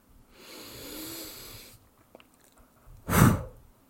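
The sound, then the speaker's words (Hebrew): A long, deep breath drawn in through the nose, filling the chest and belly, a short pause, then a single sharp, forceful puff of air all at once, like blowing out a candle, during a guided breathing exercise. Clear, with no talking. “נשמו עמוק, וכבו את הנר. ופעם אחרונה”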